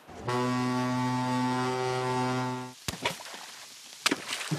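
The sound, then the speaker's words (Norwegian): A deep, steady blast from the horn of an arriving Hurtigruta coastal passenger ship sounds for about two and a half seconds, loud and rich in tone, then gives way to a couple of sharp, isolated knocks. “se der, der eh, kommer jo Hurtigruta.”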